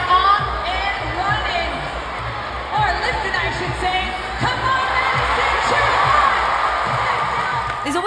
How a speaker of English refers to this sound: And just in case we were not entertained enough, some of those tiebreakers between the women, well, the crowd was going off.